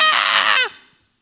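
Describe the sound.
A voice imitates a scream: one sustained, strained high-pitched cry lasting about half a second, loud, then dropping off abruptly into a brief fading tail.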